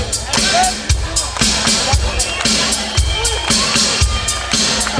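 A lively, fresh audience claps in a steady rhythm along with a deep drum being struck about once a second, the sharp claps and the low beats blending over a constant murmur of audience noise.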